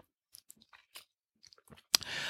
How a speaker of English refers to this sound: And with that, let us take a sip of this fine. Mm, I brewed it this morning.